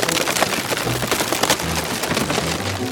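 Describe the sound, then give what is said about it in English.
Dense, continuous cracking and splintering, like wood and metal giving way under strain, as the remaining iron rings of a vat of hot fermenting ale crack under building pressure, with a steady rain-like crackle throughout and low rumbling beneath. No one speaks. “Pressure continued to build on the several remaining rings until an hour later when a crack was heard again.”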